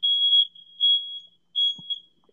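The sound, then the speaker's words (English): A piercing, high-pitched electronic alarm blares in loud repeated bursts, a smoke detector in a private residence sounding its pattern of long tones with brief gaps, heard alone. “But now, now we're right, right. smoke detectors because we, are all in our private residence.”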